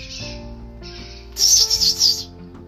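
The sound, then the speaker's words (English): A person imitates a bird call with a loud, shrill warbling burst of about four quick pulses, lasting roughly a second, over a faint low background. “I speak bird.”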